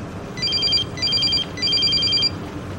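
A phone rings in three quick electronic bursts, each a bright warbling trill, over a steady low background rumble with no one speaking.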